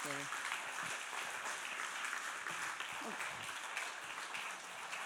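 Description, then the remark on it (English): A crowd applauds steadily for several seconds, a dense wash of many hands clapping at once, fairly loud and continuous, with faint voices mixed in underneath. “Let's give you a big clap.”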